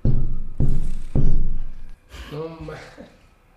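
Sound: knocking on a door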